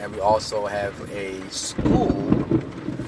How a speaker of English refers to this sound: I'm actually right now working on this podcast while there's a storm, so you may hear that in the background.